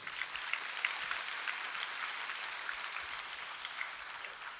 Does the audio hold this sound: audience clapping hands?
yes